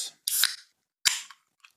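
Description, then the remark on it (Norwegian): A black can of Plaguewing beer is opened: two sharp, hissing bursts of escaping gas a moment apart, followed by a faint small click. No one speaks. “Jeg er tom i glasset, så nå åpner jeg denne her uh, eh, Krekjer.”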